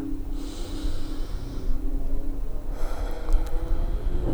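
A deep breath: a long airy inhale, a brief pause, then a fuller exhale with a low voiced hum underneath, over a steady low background drone.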